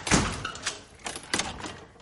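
A door is shut with a sharp thud as a woman throws a man out, followed by a couple of softer knocks and rattles as it settles into the frame, with no voices.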